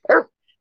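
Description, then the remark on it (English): A single short, loud dog bark in the background, a sharp burst lasting a fraction of a second, followed by silence with only a faint high blip. “Sorry about the dogs in the background.”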